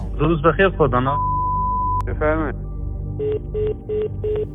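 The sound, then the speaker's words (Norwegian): A brief voice on a phone line from a man in Tehran, a sharp click, another short burst of speech, then a steady line tone followed by four evenly spaced electronic beeps as he abruptly hangs up. “Mannen bekreftet at det var ham, før han brått la på.”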